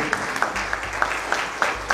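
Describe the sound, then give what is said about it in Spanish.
A church audience applauds after a prayer, a dense wash of many hands with steady rhythmic accents about three times a second, as if some clap together in time. No one speaks over it. “un aplauso, Señor, hermano, Aleluya.”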